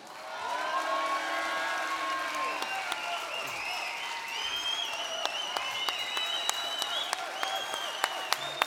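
A crowd at a live event claps steadily for several seconds for retiring footballer Anders Konradsen, a dense, even wash of applause with whoops and whistles rising over it and a few sharp individual claps standing out toward the end.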